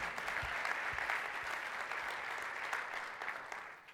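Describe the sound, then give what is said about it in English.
A room full of people claps steadily, a dense wash of overlapping hand claps that stays loud and even throughout before easing slightly at the very end. “Give it up for Julia one more time for sharing today.”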